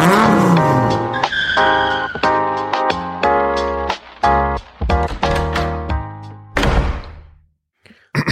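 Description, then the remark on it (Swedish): A short, punchy musical jingle with stacked tonal chords and rhythmic hits, plus car-like revving and skidding effects, ending in a noisy burst and a brief tail; loud and no talking. “då är vi tillbaka efter lingeln. Jungen. Vår älskade jingel.”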